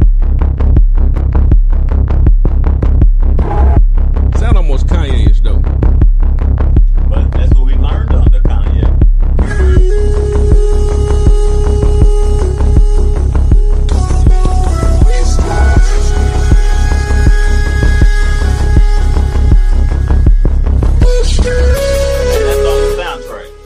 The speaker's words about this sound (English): That's on that's the, that's the, the the theme song soundtrack. Okay. I mean, listen to it.